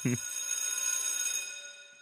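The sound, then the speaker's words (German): A school bell rings in one continuous bright, metallic burst lasting about a second and a half, then fades out, with a short low thump right at the start. “Und wenn die Schulklingel wieder klingelt, dann ist es Zeit für unsere Partner, die all das hier ermöglichen.”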